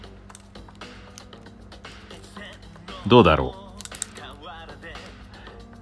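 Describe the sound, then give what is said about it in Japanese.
Scattered light plastic clicks and taps of a pen being spun and caught between a man's fingers, irregular, with the man murmuring briefly and a louder vocal burst midway. “なので、その時はですね、たまーにやりますね、ペン回しね。ちょっと今やってみますよ。音、音だけね。”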